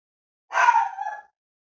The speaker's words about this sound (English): You'll hear a random dog barking in the background. She's decided at this moment she's going to be a little silly.